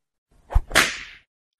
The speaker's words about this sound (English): Uh, I don't know. Uh, he whipped.